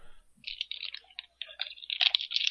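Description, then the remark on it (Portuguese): Crunchy Sucrilhos breakfast cereal being chewed, a quick run of irregular crackling crunches that grow denser toward the end, fairly quiet, with no one talking. “Eu ouvi sucrilhos sendo mastigados.”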